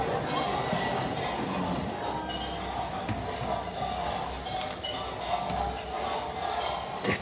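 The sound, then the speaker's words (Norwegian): About 25-30 boys and girls at a school meal in Oslo, Norway, scrape spoons against the bottoms of old tin cans to get the last drops of Swedish soup, a dense, continuous metallic clatter with occasional sharper knocks, with a faint murmur of children's voices underneath. “Det er lyden av når 25-30 eh, gutter og jenter i en skolebespisning i Oslo skraper i bunnen på gamle konservburker og får i seg de siste dråpene av svenskesuppe.”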